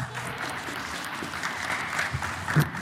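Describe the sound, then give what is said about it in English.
Steady applause from an audience for a guest called up to the front, a dense wash of many hands clapping at an even level for a few seconds, with a brief louder swell near the end and no talking over it. “A round of applause. Give it up, everyone.”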